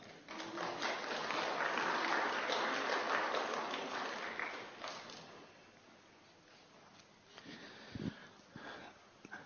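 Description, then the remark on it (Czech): Audience applause after someone has lit three things with matches, a dense crackle of many clapping hands that is steady and fairly loud for about five seconds, then thins out and dies away into quieter scattered noise. “Skvěle, tak můžeme zatleskat.”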